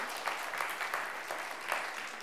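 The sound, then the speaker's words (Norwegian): Sustained audience applause for a group of young people who have been singing, a dense, steady wash of many hands clapping with slight swells in intensity, no voices standing out above it. “Altså, Den gjengen med ungdommer som står her og synger, skal vi gi dem en applaus?”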